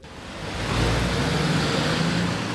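A heavy gravel truck drives along, its deep engine rumble swelling and then holding steady beneath a broad wash of road noise, with no voices present.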